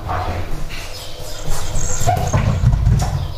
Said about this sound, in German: Mein Kater hat heute schon seine Runde gemacht. Der ist heute schon durch die Wohnung gerannt. Ähm da hört ihr ihn,